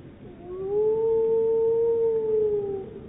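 A single long, steady howl from a wolf in a pack of two wolves holds one mid-pitched tone for over two seconds, rising slightly at the start and easing off at the end, over a faint low background rumble.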